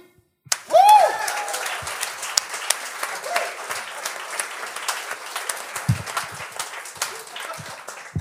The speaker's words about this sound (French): Avant de commencer, j'aimerais juste qu'on euh, fasse, un gros tonnerre d'applaudissements pour euh, à mon comédien maison